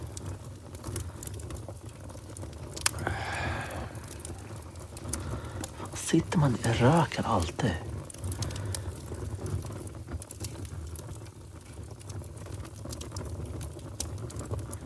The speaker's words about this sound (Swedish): Fan, ta sig elden då. Ta sig fint. En Redig brasa det här är.